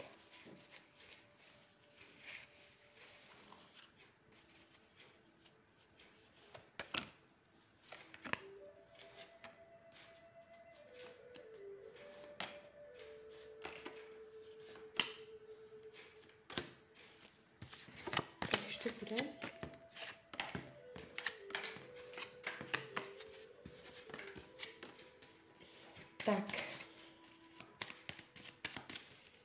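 Tarot cards being shuffled for a partner relationship reading, with repeated crisp snaps and rapid bursts of riffling that grow busier toward the end, over a soft, steady melodic tone in the background.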